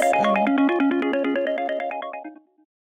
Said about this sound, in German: Wahrscheinlich hat man kurz noch ein Telefon klingeln hören. das war auch ausreichend laut.